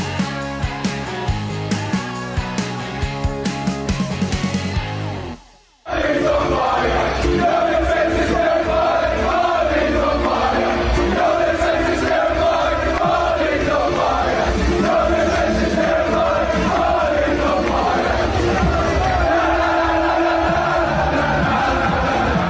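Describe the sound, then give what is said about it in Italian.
A big stadium crowd of football fans chants "Your Defense is Terrifying" at Manchester United's Harry Maguire in a loud, sustained roar with a rhythmic sung melody, after a brief burst of other sound and a moment of silence. “Harry Maguire, Your Defense is Terrifying, cantano i tifosi, preso di mira, criticato, massacrato, il centralone del Manchester United ora ha perso anche la fascia di capitano e potrebbe lasciare i Red Devils.”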